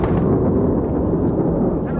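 Dense, continuous rumbling gunfire with overlapping low booms and bursts, sustained and heavy throughout, from anti-aircraft batteries firing back during an attack on a bay where an Argentine merchant ship lies.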